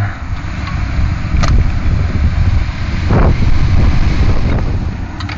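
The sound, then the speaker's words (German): Strong gusting wind of an approaching thunderstorm with lots of lightning buffets in a low, rumbling roar that swells and eases over several seconds, with no voices. “Oh, I think we're in for quite a thunderstorm here.”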